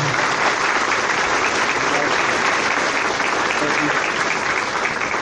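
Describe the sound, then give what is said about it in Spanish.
An audience at a Saturday-morning free software event gives sustained applause to welcome a speaker to his talk, a dense, steady wash of many hands clapping at an even loudness for several seconds, with no break in the sound. “Les pido un fuerte aplauso para recibirlo”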